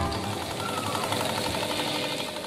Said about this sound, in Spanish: Otra variación Frida de este altavoz ventilador, de este ventilador radioparlante, también realizada por Miquel Arce, es el altavoz Pei Pei de 1929 de Ramón Gómez de la Serna.